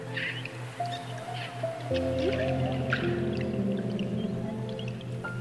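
Dolphins and whales with their heads out of the water chirping from afar: long, steady tonal calls with layered harmonics, a few rising whistles, and scattered high squeaky chirps over a constant watery hum. No one speaks.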